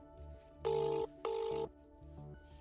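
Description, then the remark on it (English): Two bursts of a telephone ringback tone heard down the line on an outgoing call, each lasting under half a second with a short gap, over a faint background of music and line noise. “I've been given Pavel Stroilov's phone number by a fellow journalist.”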